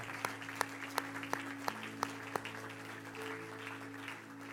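A round of applause for the cooks, judges and volunteers: a few sharp, evenly spaced claps stand out at first, then blend into a steady, dense patter of many hands clapping, with a low hum running underneath.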